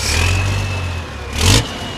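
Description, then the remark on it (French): Heavy racing truck engines rumble steadily as the drivers take their trucks back to the paddocks after the first race, with a loud revving surge near the end before settling back to a low drone. No one speaks. “En attendant, les pilotes et leurs camions vont rejoindre les paddocks.”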